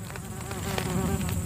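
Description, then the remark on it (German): A fly or gnat buzzes steadily, a continuous droning hum with a slight wavering pitch, heard on its own with no voices. “Also der Ochse ist eine Fliege. The, Oder eine Mücke.”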